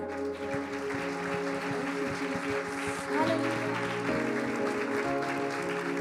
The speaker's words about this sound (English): Hallelujah, Jesus we give a round of applause to God?